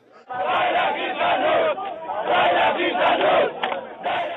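A large crowd of African migrants and Israeli supporters protesting in Israel chants slogans such as "Freedom yes, prison no" in unison, loud rhythmic shouted phrases repeating in bursts with brief pauses between them.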